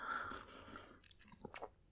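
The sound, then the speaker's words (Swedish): An airy slurp of hot tea lasting about a second, followed by a few soft wet mouth clicks and a swallow. No one speaks. “ursäkta mig jag dricker lite te här om ni undrar vad det var som sörplade.”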